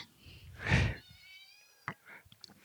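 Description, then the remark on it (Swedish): A small cat, Ruben's cat, in Järna, gives a short, breathy vocalization like a huffy snort or chirp. It is followed by a faint thin ringing tone and a few small clicks and taps. No one speaks. “Nu eh, kommer en liten katt.”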